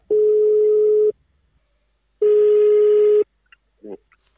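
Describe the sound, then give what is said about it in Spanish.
Two long, steady electronic ringback tones sound from a phone line, each lasting about a second with a pause between, followed by a couple of faint clicks and a brief murmur. “Vamos a llamar a otro porque los celulares.”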